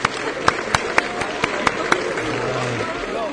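A short burst of steady hand clapping, about eight sharp claps at an even pace, then stopping, leaving a faint low hum in the background.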